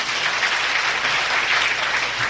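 An audience of ordained Buddhist monastics applauds themselves during a talk, a dense, even wash of many hands clapping at a consistent loudness throughout, with no voices standing out.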